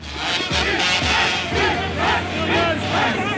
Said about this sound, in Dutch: De demonstranten, die de loonmaatregel van het kabinet niet zo zien zitten, marcheerden in brede gelederen door de hoofdstad.